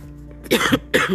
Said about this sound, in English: sorry excuse me cough.